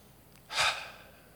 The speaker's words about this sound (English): the sound of breathing. God put His breath on us, and every breath that we take is a praise that we articulate in some way, shape, or form to He who created us.